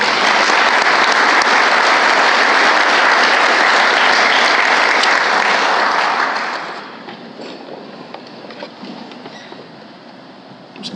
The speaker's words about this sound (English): So give a big round of applause for Tim and Greg.